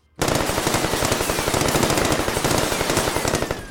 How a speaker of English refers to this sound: Gunfire burst through the door from the inside, so forceful that the wood swelled on its hinges. Bullets rained down on the ATF agents from every window at the front of the compound.